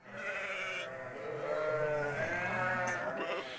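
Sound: sheep bleating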